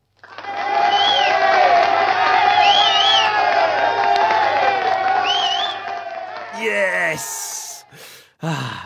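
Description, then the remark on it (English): An applause sound effect played on request: a crowd applauds loudly for about six seconds, with cheering and rising whistles mixed in, before the clapping breaks off into a few scattered sharp noises. “Actually, Neil, only if you play that lovely applause again.”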